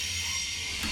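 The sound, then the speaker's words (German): A passing ICE high-speed train gives a steady, continuous rushing roar, with a hissing upper layer over a low rumble, holding an even loudness throughout the short moment with no voices. “Ach, Moment, das war der Zug.”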